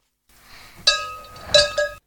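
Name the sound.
bell ringing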